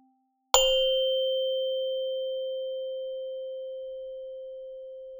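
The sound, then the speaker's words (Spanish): A single meditation bell is struck once to begin a meditation session, its clear metallic tone ringing out and slowly fading over several seconds in otherwise quiet surroundings. “Al sonar la campana, empezaremos esta sesión.”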